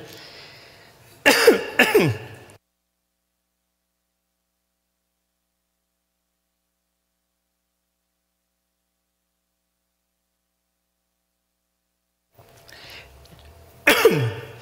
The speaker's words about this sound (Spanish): Ya estoy mejorando a mi tos, ¿eh? Ahí la llevo.